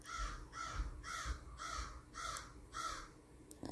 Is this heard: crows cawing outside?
yes